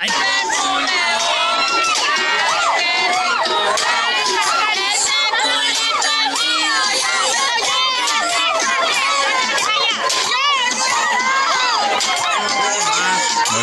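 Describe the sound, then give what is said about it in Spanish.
A large, excited crowd cheers and shouts continuously as women dance reggaeton (perreo) beside a coffin at a funeral in a cemetery, with many overlapping high-pitched whoops and voices staying loud throughout. “las viejas bailándole al ruso”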